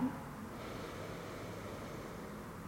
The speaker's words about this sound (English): Take a deep inhale through your nose and an easy exhale through your mouth. Take a deep inhale.